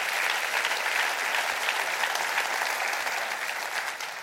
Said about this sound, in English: Clap your hands to that because that's important.